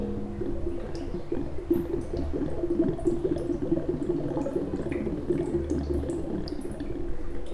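A dry bathroom tap with no water gurgles and bubbles continuously, a churning rumble of air and liquid that persists unbroken for several seconds, with no talking, at nine in the morning in Dar es Salaam during a city water shortage.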